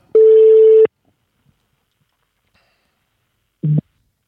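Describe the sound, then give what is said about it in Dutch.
A single steady, mid-pitched ringing tone of an outgoing telephone call to someone in the Alps sounds loudly for under a second, followed by a long silence and then a brief, lower-pitched burst of noise. “Ik bel hem even in.”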